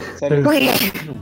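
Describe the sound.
One loud sneeze bursts out with a voiced, breathy rush, then trails off into a brief vocal sound. It is part of a run of repeated sneezing.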